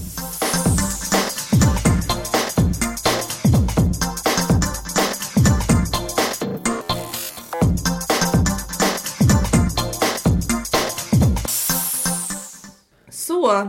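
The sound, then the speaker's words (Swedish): A track from a new album released that weekend: loud, dense full-band music with a steady driving beat, punchy bass and bright sustained tones, playing continuously before briefly cutting out near the end and then kicking back in. “Eh, jag tycker den har ett speciellt sound och verkar inte fått det genomslaget den förtjänar och den låter så här.”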